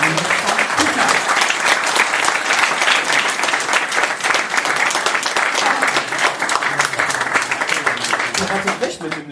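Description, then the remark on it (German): A large audience applauds loudly and steadily, dense clapping filling the whole stretch without pause, with faint voices mixed in beneath the ovation. “bitte einen großen Applaus für die beiden.”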